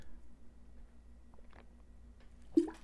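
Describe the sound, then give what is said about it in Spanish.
A few soft sipping and swallowing sounds from someone drinking water, ending with a brief louder knock near the end, like a glass being set down. “perdón, tenía que tomar un poquito de agua”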